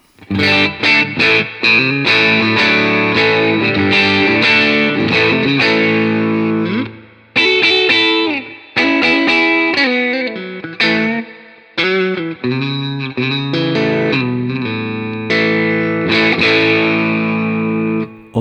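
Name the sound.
overdriven electric guitar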